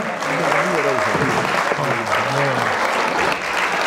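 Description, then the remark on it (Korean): An audience breaks into steady, dense, loud applause welcoming a guest, carrying through the whole moment, while a couple of voices talk and react over the clapping. “네 저는 다시 한 번 환영의 박수 한번 부탁드립니다.”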